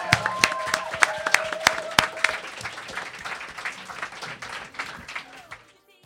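An audience breaks into applause, many hands clapping in a dense, steady patter that starts with a few sharp claps and thins out toward the end.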